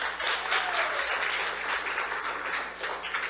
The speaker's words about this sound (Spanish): Bueno, pueden sentarse, hermanas. Denle un aplauso a las hermanas.